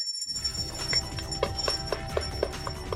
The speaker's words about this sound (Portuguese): Eu espero que, antes de tocar o sininho, eu espero que eu possa voltar aqui mais vezes.